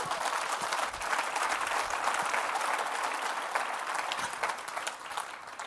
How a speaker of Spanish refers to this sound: Dele un fuerte aplauso a Cristo, hermano.